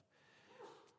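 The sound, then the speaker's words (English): A single sneeze, a short breathy burst that swells quickly and trails off with a faint sniff. “bless you”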